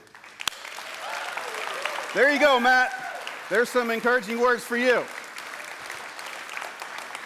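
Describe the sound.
A room full of people applauds in a steady, dense patter of clapping that continues throughout, while a man speaks briefly over it.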